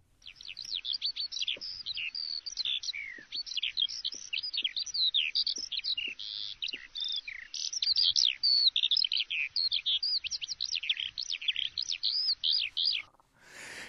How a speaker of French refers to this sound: Ça, c'est, c'était l'alouette. Passereau aux plus de 600 notes ou syllabes, qui, à la belle saison, planait régulièrement au-dessus du champ voisin.